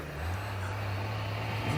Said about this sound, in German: Da kommen Autos den Strand raufgefahren. Lauter Jeeps. Das, das ist die Polizei. Da! Sie fahren ihm entgegen. Sie umzingeln ihn.